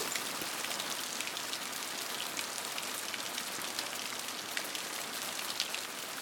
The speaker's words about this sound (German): Reis, Curry, Gemüse und bereiten das Boot für die Übernachtung vor, legen uns bald hin und lauschen dem Regen.